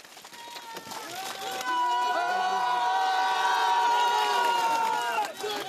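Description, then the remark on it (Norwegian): A large crowd outside the railway station in Minsk, Belarus, cheers loudly at night as a freed opposition politician steps off the train from Vitebsk, a sustained swell of shouts and whoops that builds after the first second and holds steady before easing slightly at the end. “Det var jubel utenfor jernbanestasjonen i den hviterussiske hovedstaden Minsk natt til søndag, da Andrej Sanikov steg av toget fra Vitebsk”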